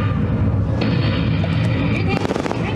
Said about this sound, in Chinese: 好的，各位观众，针对刚刚。本市遭受敌军轰炸攻击，现场记者中断连线。